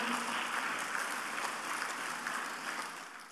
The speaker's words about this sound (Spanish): Si le va a dar el aplauso, déselo al Señor fuerte, por favor.